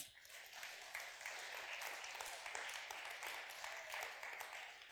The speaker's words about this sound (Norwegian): Hun skal få en applaus.